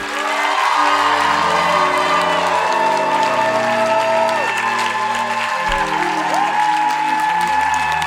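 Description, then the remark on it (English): A large crowd claps and cheers steadily for several seconds to give thanks and glory to God, a loud, continuous wash of applause with scattered whoops and shouts rising above it. “Okay, now Clap to God to give God the glory and the thanks for teaching you, for instructing you, for blessing you.”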